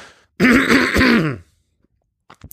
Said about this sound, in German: Ich muss noch ganz kurz husten.